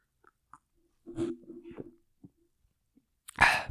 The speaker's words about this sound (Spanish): Voy a, hacer una pequeña pausa para tomar agua para la gente que está eh, escuchando en, YouTube, en YouTube, en, Spotify. Y les voy a hacer un poquito como de ASMR mientras tomo agua para todos los fanáticos y amantes del ASMR.